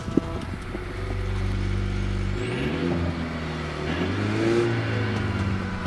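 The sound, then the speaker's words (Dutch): A small 1500 cc turbocharged car engine starts with a brief click and settles into a steady low idle, then revs up in rising, whining surges that swell and ease off, loud throughout with no one talking. “Ik wil hem best wel even horen nu. Ik slinger hem aan voor je.”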